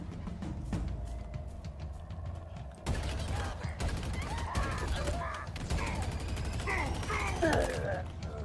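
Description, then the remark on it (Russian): Video game gunfire and explosions: rapid bursts of shots and booming blasts in a dense, continuous barrage that grows louder and busier after the first few seconds. “Они могут взрываться. Залетая, да.”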